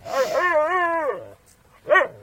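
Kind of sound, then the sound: animal, dog barking and whimpering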